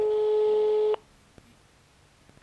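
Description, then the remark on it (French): A single steady ringing tone from an outgoing phone call sounds for about a second, loud and even, then cuts off into near silence with a few faint clicks. “Aujourd'hui donc j'appelle Hélène et vous laisse tout de suite en sa compagnie”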